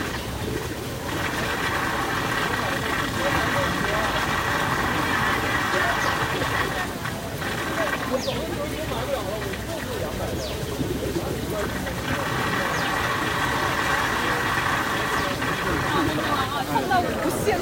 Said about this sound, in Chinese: 这是一段小溪流，呃的声音，就是小溪流小沟渠里面有一个小小的、小小的水管吧，就往下流的水管，然后水流到这里的时候，就往会往那个水管里面去，所以就会有这个很巨大的声音